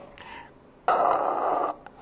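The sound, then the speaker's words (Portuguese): A person imitates the heavy mechanical respirator breathing of Darth Vader: a faint, raspy intake followed by one loud, sustained hissing exhale lasting nearly a second, with no talking. “como é a respiração do Dutch Vader? Faz aí para a gente ver.”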